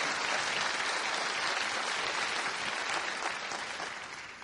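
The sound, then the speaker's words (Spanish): An audience applauds the speaker's wife, who is accompanying him, clapping steadily in a dense, continuous burst of applause that holds strong for several seconds before gradually tapering off toward the end. “Démele un aplauso a mi esposa que me está acompañando.”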